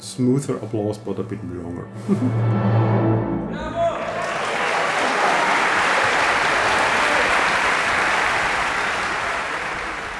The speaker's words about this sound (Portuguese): Também tenho a impressão de que há mais pessoas jovens no Brasil, então talvez os alemães preferem aplaudir mais suavemente, porém por mais tempo.